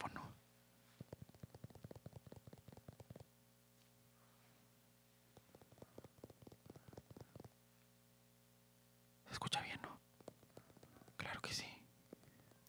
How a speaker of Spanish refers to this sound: Y para empezar, vamos a empezar con un ASMR. Claro que sí. Voy a empezar tocando este teléfono.